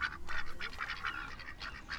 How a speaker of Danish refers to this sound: så ser jeg og kigger på de mærkelige fugle der.